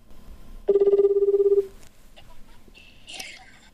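A telephone rings once with a rapid warbling trill lasting about a second, loud, followed by quiet background noise and a brief high electronic chirp near the end; an incoming call for a telephone-recorded segment of the radio station FM Maizuru.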